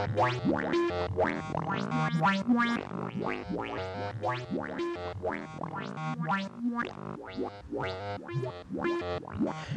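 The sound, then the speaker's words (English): A delay pedal's wet-only output: a dense stream of overlapping pitched echo repeats with quick chirping, springy attacks, steady and fairly loud throughout, with no one speaking. “Let's take the original microvolt signal out and just listen to the cutting room floor.”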